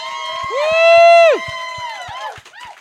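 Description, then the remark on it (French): An audience applauds and cheers a performer: a loud, sustained high-pitched whoop rises and holds before dropping off, over a steady beat of sharp claps, followed by more excited shouting voices as the clapping continues. “tout le monde, on l'applaudit fort!”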